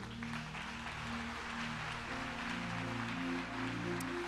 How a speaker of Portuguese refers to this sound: Você está alegre? Aplauda o Senhor.